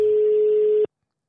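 A single steady electronic ringing tone of an outgoing phone call, the third ring, sounds for just under a second, clear, then cuts off abruptly into silence. Nobody speaks.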